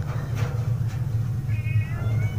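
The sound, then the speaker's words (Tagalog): Thin, wavering yowls of small cats rise briefly over a steady low rumble, with a couple of soft rustling bursts earlier; the cries sound faint. “Na nagbabalat kayo na isang hayop at mga alulong na mga maliliit na pusa.”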